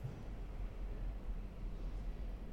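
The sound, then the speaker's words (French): A steady, muffled low rumble of a metro train coming to a stop, heard from inside the carriage at a quiet level, with even noise throughout and no voices. “Le métro s'arrête, je sors de la rame.”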